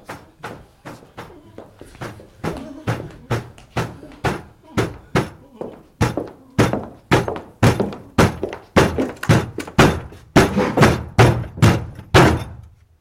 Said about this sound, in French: n'entendez donc pas qu'on frappe à la porte Silence, vous autres Je commence tout de suite. Qui frappe